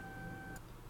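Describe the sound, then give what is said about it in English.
A thin, steady two-toned whine from a malfunctioning sink upstairs hums faintly in the background, then cuts off abruptly with a brief hiss, leaving quiet room noise. “So that noise was uh my sink upstairs.”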